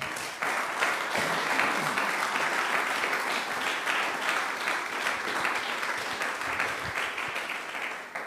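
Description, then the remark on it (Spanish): A crowd of people applauds steadily for about eight seconds, a dense, even wash of many hands clapping at once with no one speaking over it. “Dele palmas al que vive.”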